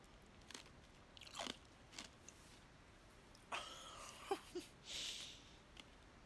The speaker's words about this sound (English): I'm so sorry if you guys just heard that. That was me crunching on ice. I'm so sorry. I didn't even think about the fact that the um, phone was right in front of me.